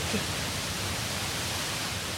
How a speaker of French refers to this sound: Estamos chegando na gruta e ouvimos a cascata, la cascade. est realmente sombrio et angustiante. Et il faut d'ailleurs savoir que la cascade est un peu plus faible qu'elle n'était à l'ouverture du parc, puisqu'on l'entendait depuis l'entrée du parc.